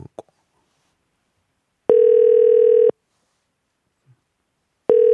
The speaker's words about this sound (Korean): 이게 저 엄마 아빠가 싸우고 있는데 전화가 될지 모르겠어요. 4865님 전화 한번 걸어보겠습니다.